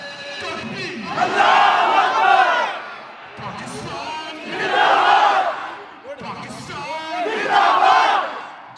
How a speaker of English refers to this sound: Someone on a PA leads the group in a series of chants.